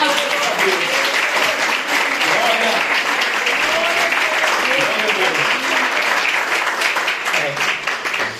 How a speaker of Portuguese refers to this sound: E as palmas que adorem ao Senhor Jesus.